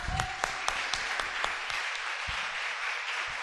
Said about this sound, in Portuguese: Que lindo, é de aplaudir, irmãos.